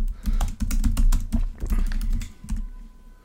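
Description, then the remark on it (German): Rapid, uneven clatter of keys being struck on a computer keyboard, fairly loud, slowing to a few final taps before trailing off. “Also er tippt.”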